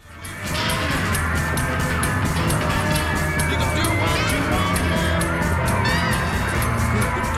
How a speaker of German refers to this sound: sondern einfach wegen der schlechten Qualität und wegen der Fans es ist einfach wieder mal ein Gekreische im Hintergrund.